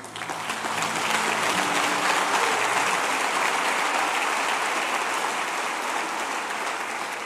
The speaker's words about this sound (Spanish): Un aplauso a Jesús.